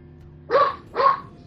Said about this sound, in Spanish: ¿pasa algo? Eh, sí, el perro está ladrando pero no hay nadie en el edificio